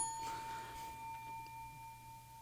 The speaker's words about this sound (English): Hopefully, you're listening to this on a uh, high uh, resolution uh, Fender audio system, and you can hear the uh, the lingering of the bell as it uh, trails off into the distance.